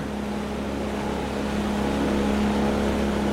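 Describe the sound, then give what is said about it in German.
The engine of a large motorboat drones steadily with a low, constant hum, holding an even level throughout with no voices, as the boat comes into the bay of Black Conch. “hört das Motorenbrummen, aber als sie erkennt, dass es nicht Davids kleine Piroge ist”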